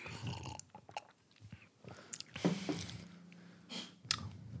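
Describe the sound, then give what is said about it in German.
Someone drinks water: a run of wet gulps and swallowing sounds with small clicks and breaths, plus a brief low throaty hum partway through. Nobody speaks. “Muss aber trinken.”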